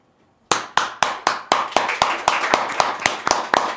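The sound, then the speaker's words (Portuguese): Sharp hand claps of applause in a studio ring out in a quick, steady run of about fourteen beats after a brief silence, fairly loud, with no one talking. “Pô, que merda, rolou um momento de aplauso quando eu tava mijando.”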